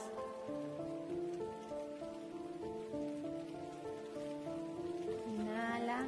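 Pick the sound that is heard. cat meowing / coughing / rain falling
rain falling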